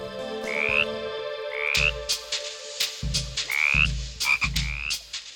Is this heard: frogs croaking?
yes